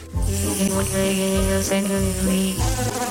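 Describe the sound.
A voice imitates a buzzing fly, a steady nasal drone held for about three seconds with slight wavering pitch and a few brief dips, fairly loud and alone with no talking.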